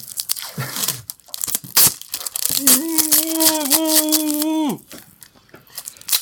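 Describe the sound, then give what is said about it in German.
Adhesive tape is ripped off a roll to tie up a person: crackly tearing bursts, then a long, loud tonal screech as a strip is yanked out in one pull, ending abruptly. “Ich habe das Klebeband. Alles klar, auf drei. Ich fessel ihn.”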